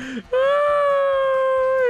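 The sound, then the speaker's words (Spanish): A voice imitates a woman crying, as the wife of Piolín weeping at Piolín's wake: one loud, drawn-out, high-pitched wail held steadily for over a second after a brief short lead-in, with no other talk. “Y la esposa de Piolín lloraba.”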